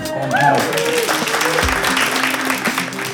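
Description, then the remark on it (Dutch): A crowd claps steadily, a dense wash of many hands filling the space, with a few voices and a brief whistle-like tone rising over the applause near the start. “Niet verschieten trouwens, want deze podcast is live opgenomen eh, voor het publiek dus op het DS Podcast Festival in Oostende goedemiddag Oostende.”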